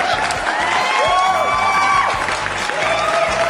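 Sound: applause and cheering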